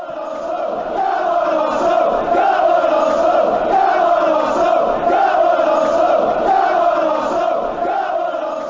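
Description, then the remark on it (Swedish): A large audience roars and applauds in a steady, continuous swell of crowd noise that stays loud for about nine seconds, with a rising and falling chant-like tone and no speech on top. “Men vi kanske ska se ifall applåderna håller i sig när vi ska sätta lite spelarbetyg som vi alltid gör.”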